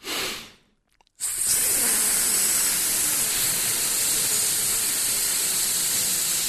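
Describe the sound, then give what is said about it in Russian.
In a vocal breathing exercise, a voice takes a brief breath, holds it for a short pause, then lets out a long, steady hiss like air escaping a punctured tire, inflatable boat or air mattress, continuing evenly for several seconds, fairly loud. “Вдохнули, задержали воздух, и как будто проткнутая надувная лодка, да, или камера автомобиля, я не знаю, или матрас надувной.”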